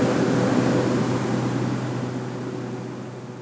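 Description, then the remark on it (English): Steady, loud roar of airplane engines running as the plane takes off on a flight into Kalaupapa on a hot day in June, a broad droning rumble with a high whine on top, holding constant and easing slightly toward the end, with no voices. “Okay, the engines are turning on.”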